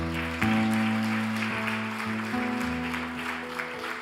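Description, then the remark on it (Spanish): Loud, sustained applause from an audience clapping for God, a dense wash of clapping that continues throughout, with steady low keyboard or organ chords sounding underneath. “¿Cuántos le dan un aplauso fuerte a Dios?”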